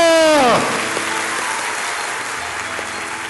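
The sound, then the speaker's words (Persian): An audience claps with their fingers to imitate rain and hail, in a dense, steady patter that sounds like rain drumming on a surface, following a brief sliding tone at the start. No one speaks. “یه انگشتی بارون میاد دو انگشتی تندش کنید تگرگه سه انگشتیه حالا دیگه بارون نیست دیگه حالا”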